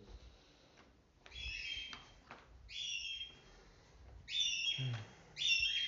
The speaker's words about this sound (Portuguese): Nossa, claro que meu passarinho tá rasgando a garganta.